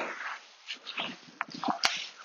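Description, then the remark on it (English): A dog, Wolfie, whimpers and whines excitedly in short, high-pitched bursts, with a sharp snapping click near the end and no talking. “Wolfie getting very excited now.”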